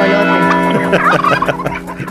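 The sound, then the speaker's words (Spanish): Turkeys gobble in a loud, rapid, warbling chorus, several birds calling over one another in rippling bursts that rise and fall for about two seconds, with no talking. “Se alborotaron los chumpes, las campanas y todo.”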